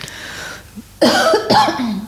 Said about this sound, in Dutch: Even kuchen. Even kuchen, want het is eh, ook niet niks, eh, dat boek.